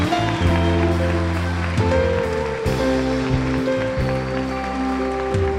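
Steady applause from a church audience welcoming a woman who has just accepted Jesus, a dense crackling wash of clapping at an even level, runs under sustained keyboard chords that change every second or so.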